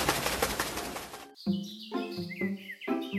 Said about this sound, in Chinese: 说完，猫头鹰就飞走了。